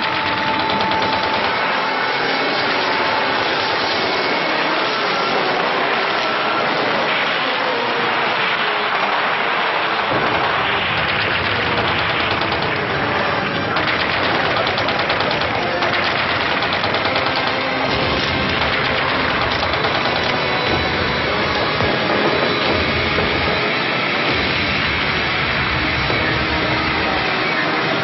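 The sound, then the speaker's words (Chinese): An air raid in which Japanese aircraft drop bombs on a radio station: a loud, unbroken roar of crackling, rattling noise lasting about half a minute, with heavier rumbling bursts after the first ten seconds and no voices. “这次的鬼子扔的炸弹还真不少，真是把我们电台当成眼中钉啊！”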